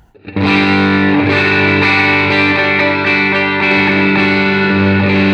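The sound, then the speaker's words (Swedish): A sustained electric guitar chord played through a germanium overdrive pedal rings out loud and steady, thick with gritty distortion and harmonic fuzz, played alone with no talking over it. “Lite sprill och hår. Lite hår kom det till.”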